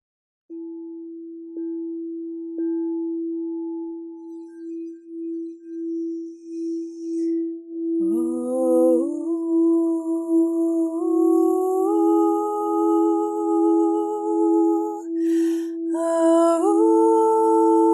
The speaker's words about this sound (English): And just let yourself receive, let yourself breathe, and with curiosity, receive all the good from this situation as you listen to the healing sound of my crystal singing bowl.